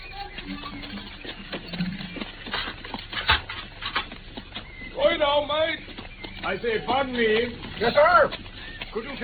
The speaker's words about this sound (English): But quickly, Watson. I can see the carriage in the driveway now.